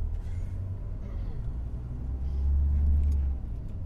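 vehicle, car driving past

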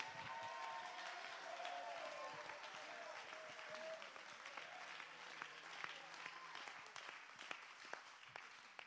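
crowd, audience clapping hands

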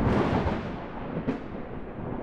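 nature, thunder

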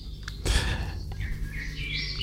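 bird, common blackbird singing

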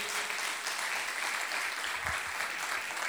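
crowd, audience applauding

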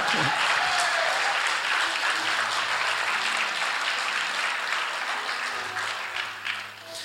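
crowd, audience applauding

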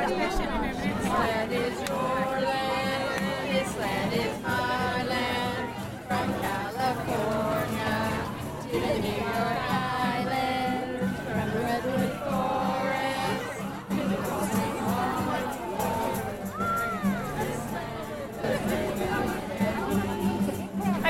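crowd, crowd chatter

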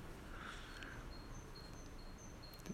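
bird, small bird chirping

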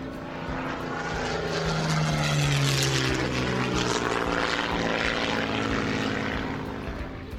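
vehicle, airplane flying overhead

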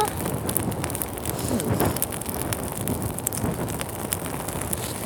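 nature, crackling campfire

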